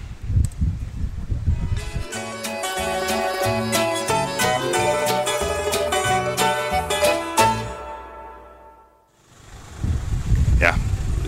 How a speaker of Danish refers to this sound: som man kan høre, så er der øh, øh ankommet et lille bitte blæsevejr her til Villeneuve i udkanten af Avignon, hvor vi sidder, du og jeg,